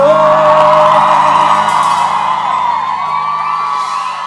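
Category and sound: crowd, audience shouting and cheering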